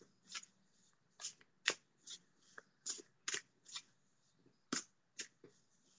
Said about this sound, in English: Okay, I've got two and a half decks, so that was a little hard to shuffle. Okay, I just went for it.